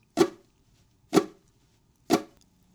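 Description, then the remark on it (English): Three muted downstroke strums on ukulele strings, the fretting hand lightly touching the strings at the seventh fret, evenly spaced about a second apart: short, dry, percussive chucks with no ringing notes, moderately loud, with no talking. “Next, do a quick downstroke across the strings.”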